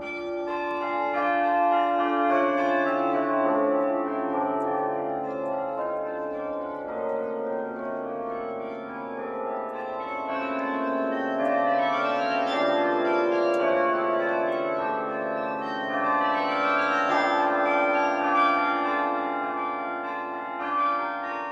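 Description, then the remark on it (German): The carillon in Munich rings out a continuous melody, The Swan from Camille Saint-Saëns's Carnival of the Animals, overlapping bell tones blending with rich resonant overtones, steady and fairly loud throughout, with no voices present. “Und hier kommt jetzt ein ganz bekanntes Stück auf, so einem äh, Glockenklavier, so einem Carillon gespielt.”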